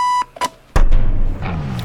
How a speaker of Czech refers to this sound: vypni si ten budík a panej k televizi na ten hokej